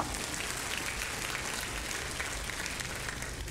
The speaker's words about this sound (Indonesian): Yang setuju berikan tepuk tangan buat Allah kita.